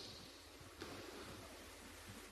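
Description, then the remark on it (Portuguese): A crowd taps two fingers together to imitate light drizzle, making a soft, steady, hissing patter without pause or talk. “E ele usou o auditório para fazer a gente ouvir um som de chuva eu queria te pedir ajuda agora. Pega os seus dois dedos, por favor.”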